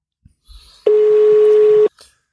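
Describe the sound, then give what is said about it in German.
A single loud telephone ringing tone sounds for about a second as a phone call is placed, a steady pitched beep heard over the line, with a few faint clicks and thumps just before and after. “Okay, also wir rufen ihn mal an.”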